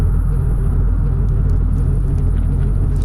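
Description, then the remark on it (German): A continuous deep rumbling from broken, leaking water pipes in an old house, steady and fairly loud for the whole stretch, with a faint hiss above the low drone and no voices. “Das, sind kaputte Leitungen.”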